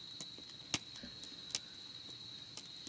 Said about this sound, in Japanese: 聞こえるでしょこのパチパチって音 やばいね本当に